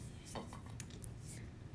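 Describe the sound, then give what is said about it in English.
Someone sips water from a glass, with a few soft clinks and small handling knocks against a low background hum; no one speaks. “sips water.”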